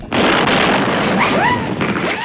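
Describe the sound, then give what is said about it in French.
A tuk-tuk's engine, after backfiring rhythmically, suddenly blows with a loud, sharp burst that becomes a sustained roaring hiss of noise, with brief whistling squeals rising through it near the end; no one speaks. “finit soudain par exploser chauffeur lâche une bordée d'injures et se gare sur le bas-côté.”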